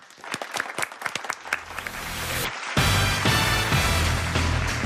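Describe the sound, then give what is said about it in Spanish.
A burst of applause from a group, starting as scattered individual claps and swelling into dense, loud, continuous clapping with some cheering noise, lively. “Un aplauso, sí, sí señor.”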